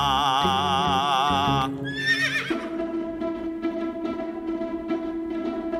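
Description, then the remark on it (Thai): A frightened young horse fleeing from something whinnies loudly in a high, quavering cry that wavers then rises and falls, followed by a steady run of rhythmic clip-clopping hoofbeats over a sustained tone. “โอ้นั่น เจ้าม้าน้อย ตื่นกลัวหนีอะไรมา เกิดอะไรขึ้น”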